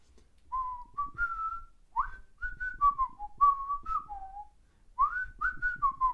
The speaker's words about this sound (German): Ich würde es jetzt einfach mal pfeifen und gucken, ob du das errätst. Bist du bereit dafür?